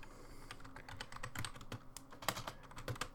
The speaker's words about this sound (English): Oh, the loudness yeah. of your typing. Yeah, well, it just adds to the uh, adds to the authenticity.